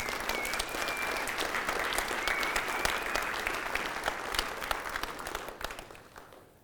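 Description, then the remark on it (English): A church audience at the Orchard applauds steadily, a dense wash of many hands clapping at an even loudness for several seconds before tapering off at the end. No one speaks over it. “Jesus says these words that when one person returns to repentance, it says there's an eruption in heaven, a party, an applause as heaven sees redemption has come to earth. And so today, let us join heaven briefly.”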